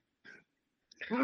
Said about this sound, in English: Bless you.